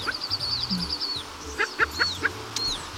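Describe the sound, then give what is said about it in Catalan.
A western capercaillie calls in a forest: a quick run of high chirping notes, then a few sharp, knocking clicks and pops with a brief whistle, over a quiet outdoor background. “Si sentiu aquest soroll pel bosc, us podeu sentir afortunats perquè esteu a prop del Gag”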